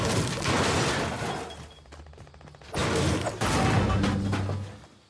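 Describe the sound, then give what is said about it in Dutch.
In a video game, many players dropped into a green environment hit objects at once: dense bursts of smashing and breaking, many overlapping hits and crashes layered together, briefly thinning in the middle before surging loud again. “Als je nu met een spelletje begint, dan word je in een, een, een groene omgeving gedropt met een hele hoop eh, andere spelers om je heen die allemaal maar tegen dingen aan het slaan zijn.”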